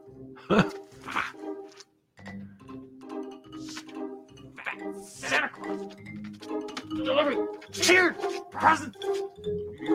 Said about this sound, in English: Stop your barking!